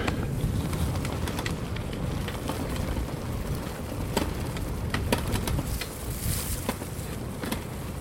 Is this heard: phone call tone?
no